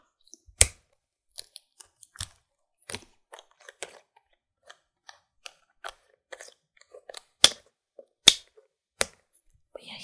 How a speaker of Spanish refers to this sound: Entonces voy a abrir un poquito de leche. Esta está selladita. voy a destaparla.